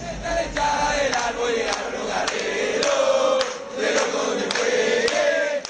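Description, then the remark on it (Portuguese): Colo-Colo football fans from Chile chant a song in unison, a loud, dense crowd of voices holding a melody, with rhythmic sharp claps or drum hits punctuating the singing throughout. “É e tem uma versão da torcida do Colo-Colo, do Chile.”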